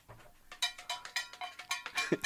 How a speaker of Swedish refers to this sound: Du, framför dig har du en burk oh. Du ska få dra en lapp ur den burken, skaka den först